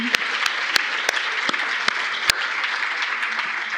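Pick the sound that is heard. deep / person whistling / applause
applause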